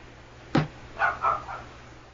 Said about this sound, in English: Yes, dog? I don't know what the fuck she's freaking out about.